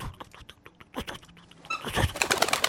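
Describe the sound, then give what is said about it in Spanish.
A person imitates a bird's wings flapping with a run of quick, soft fluttering pulses that grow into a louder, denser burst of flapping near the end. “Y luego oigo como que aleteo.”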